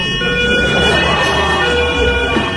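An ambulance siren blares loudly and continuously throughout, a shrill, sustained tonal wail with ringing overtones above a low, steady rumble.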